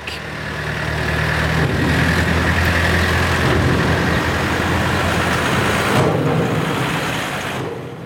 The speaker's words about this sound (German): Dienstagmorgen, Viertel ab 8. Fünf Autos und ein Lastwagen fahren zu Romanshorn über Trampen auf die Fähre Friedrichshafen.